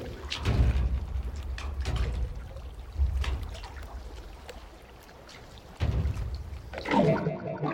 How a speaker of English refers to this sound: we put a trim bin, a trim bin being an old thing they used to use to cut film into, and we put it into the water tank and we we just kind of moved it around and the water started smacking up against it and it's the very first sound in the film